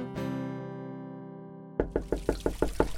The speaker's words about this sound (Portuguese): Então fiquei surpreso quando alguém bateu à nossa porta uma manhã enquanto eu fazia a barba.